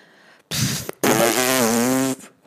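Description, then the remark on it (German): Someone attempts to whistle but only blows air: a short breathy rush, a brief pause, then a longer buzzy, wavering tone that never becomes a clean whistle. No one speaks. “Versuchst zu pfeifen?”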